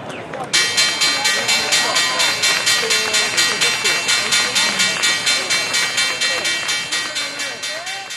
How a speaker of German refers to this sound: Dieses Signal läutet regelmäßig bei Menschen Gefühlsregungen ganz verschiedener Art ein, von Euphorie bis Panik. Denn mit dieser Glocke wird täglich der Handel an der New Yorker Börse, der Wall Street, eröffnet.